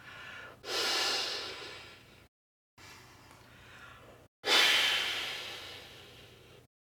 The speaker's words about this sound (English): You probably notice these aren't like little soft, like secret kind of quiet. They're full, loud, deep breaths that come from way deep in my belly. They're full breaths.